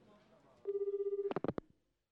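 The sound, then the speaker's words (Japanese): A telephone line rings once as a credit card company call center calls a customer: a steady, fluttering mid-pitched tone lasting about half a second, then several short clattering bursts, like the call being picked up. A faint murmur sits underneath at the start. “その日僕は彼女と電話で初めて話した”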